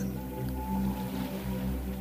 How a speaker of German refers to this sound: Die Wellen kommen rein und die Wellen gehen auch wieder.